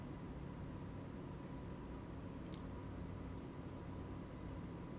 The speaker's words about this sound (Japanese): このエアコンの音が聞こえるのかわかんないんですけどエアコンの音と